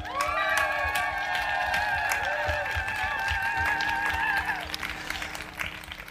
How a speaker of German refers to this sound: davon bekommt, was hier auf dem Leipziger Augustusplatz los ist, darf ich euch erstmal bitten, einen kräftigen Applaus von unserem Publikum einzufordern. Und die Kamera fängt vielleicht mal das wunderbare Publikum hier auf dem Augustusplatz ein.